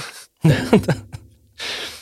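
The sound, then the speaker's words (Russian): A voice imitates a cartoon character quickly running away, in the style of a sound-library effect used in many animated films: a breathy burst, a few quick voiced squeaks, then a final airy whoosh, all fairly loud in about two seconds. “Э, человек, который слушает много анимации, например, с таким звуком, он начинает ее узнавать, и он считает, что действительно убегающие быстро персонажи должны звучать именно так.”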